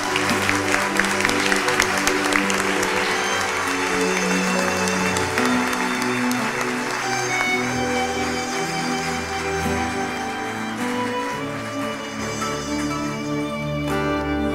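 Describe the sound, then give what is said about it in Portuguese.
An audience at a religious meeting applauds Jesus, with dense, steady clapping that stays loud for the whole stretch and mixes with sustained musical tones underneath, thinning slightly toward the end. “Vamos aplaudir Jesus por essas vidas.”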